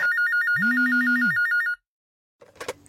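A telephone rings with a rapid, warbling trill over a steady lower tone, loud for under two seconds. It cuts off abruptly, and after a pause a short burst of sound follows.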